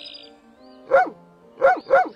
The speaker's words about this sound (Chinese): 啊，那这个是布谷鸟在叫吗？也不是，是小狗在叫啊。